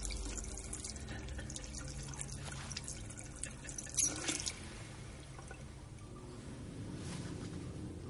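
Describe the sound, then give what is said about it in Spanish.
In a restroom, water runs steadily from a tap into a sink while a person wets their hands and rubs them beneath it, with a brief splashy burst midway; fairly quiet, no voices. “Se empapa las manos y se las frota.”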